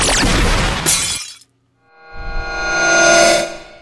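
A loud shattering crash of a red ruby, with bright crystalline fragments scattering, a brief silence, then a swelling, ringing shimmer of glassy tones that rises and fades.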